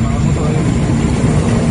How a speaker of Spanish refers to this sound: Y está, estamos en territorio venezolano y todavía el helicóptero colombiano está sobrevolando. Está haciéndonos sombra